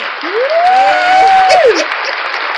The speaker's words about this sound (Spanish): Nadie, oye, al que sí, no voy a criticar, pero le voy a dar un bravo, por favor, un aplauso